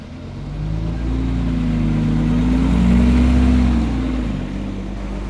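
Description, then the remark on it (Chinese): A driver starts a bus, whose engine rumbles to life, a deep low drone rising quickly, holding steady with a slight wavering pitch, then easing off near the end. No voices are heard. “司机发动了公车，车灯闪闪发亮，引擎声隆隆作响。”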